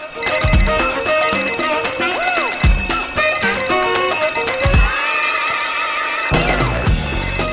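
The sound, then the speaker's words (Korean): A telephone rings as a wake-up call on the FM Days radio morning-call service, a bright, melodic ringtone, loud and steady over a musical backing, with a few deep thumps recurring every couple of seconds and no voices. “FM 데이즈 모닝콜 서비스 조우종입니다.”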